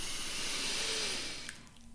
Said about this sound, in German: Wir atmen erstmal ein.